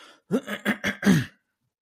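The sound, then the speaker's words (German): A person clears their throat in a quick series of four or five rough bursts, the last one slightly longer, with no talking. “so, jetzt hier, Stimme macht nicht ganz mit, ich muss mich mal ganz kurz räuspern.”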